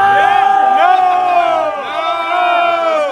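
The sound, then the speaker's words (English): A loud crowd shouts and screams together, yelling "No!" and "Fed" at a man urging people to go into the Capitol; many overlapping voices with rising, strained yells sustained throughout, continuous with brief dips before surging again. “Okay, and you can see people around him screaming, no, Fed, Fed, Fed, Fed, Fed, right?”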